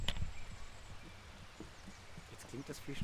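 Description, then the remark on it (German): Light outdoor drizzle just beginning to fall, as a soft, steady hiss with scattered faint taps, and a voice briefly talking toward the end. “jetzt fängt es tatsächlich auch ein bisschen an zu nieseln.”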